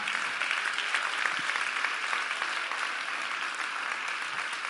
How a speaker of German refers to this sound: Können wir den beiden mal einen riesen Applaus geben?